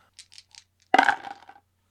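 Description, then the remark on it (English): Dice rattle softly in a ceremonial dice chalice with a few light clicks, then spill out in a loud clatter that tumbles and fades over about half a second. No voices. “I shall get the ceremonial dice chalice.”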